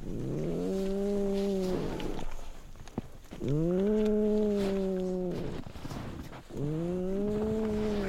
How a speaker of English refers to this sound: I'm looking at her thinking, how on earth does this little thing survive out here? and then she starts to snore.